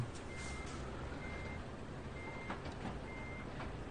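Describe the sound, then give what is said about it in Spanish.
A truck's reversing alarm in a driving game beeps repeatedly at a steady pace as the truck is being parked, a thin high tone over a constant low engine rumble, with no one speaking. “Ya vamos a aparcar.”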